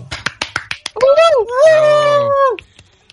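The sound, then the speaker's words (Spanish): Half a dozen sharp claps in a quick rhythm, then a loud, drawn-out vocal whoop that rises and wavers before cutting off. “con el aplauso, los presentes.”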